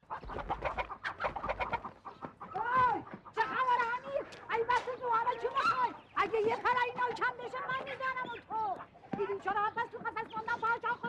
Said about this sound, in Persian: امیر چوب برداشت و افتاد دنبال مرغها